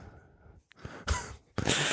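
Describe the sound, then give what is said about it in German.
A loud sneeze with explosive bursts that break sharply after a brief breathy intake, followed by a second forceful blast. No one speaks. “Gesundheit.”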